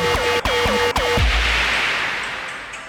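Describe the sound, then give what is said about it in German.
A mobile phone ringtone plays a quick electronic melody of repeated, sliding tonal notes for about a second, then cuts off into a loud, fading hiss. “Das war mein Handy. Ja, sowas muss ich mir anhören.”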